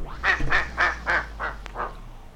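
A duck quack sample slowing down on a direct-drive turntable: six nasal quacks in a steady rhythm, each one drawn out and dropping slightly in pitch as the record slows, fairly loud with a low hum underneath.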